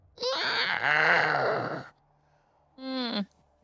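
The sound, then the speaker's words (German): A person imitates a long, drawn-out monster howl heard above the ridge, a loud moaning wail with wavering pitch lasting nearly two seconds, then after a pause a shorter, clipped second howl. “Ihr hört wieder dieses langgezogene Heulen oberhalb des Kamms.”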